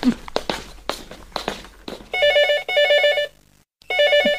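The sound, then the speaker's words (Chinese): Footsteps hurry across the floor as people get ready to go out, then a telephone starts ringing loudly in repeated trilling electronic bursts, with one short pause between rings. “肯定是林医生又打来了。”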